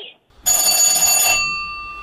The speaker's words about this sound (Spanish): Y andaba yo barriendo y que suena el teléfono y...